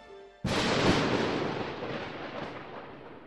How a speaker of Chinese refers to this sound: 当她飞到邻国的上空时，突然，一道闪电朝坏王后打来，